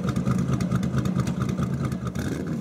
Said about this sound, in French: Soudain, le bruit d'un moteur se fait entendre au-delà de la foule. Puis, un autre moteur et encore un autre. Le bruit de ces moteurs est assourdissant, certes, mais merveilleux aux oreilles des passionnés.